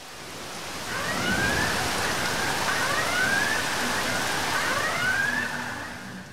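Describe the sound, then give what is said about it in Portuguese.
Civil Defense warning sirens wail in Petrópolis during a Sunday afternoon storm, rising in three repeated sweeps over the steady roar of heavy rain. No one speaks. “Sirenes disparadas pela Defesa Civil deixaram a população de Petrópolis em alerta nesse domingo.”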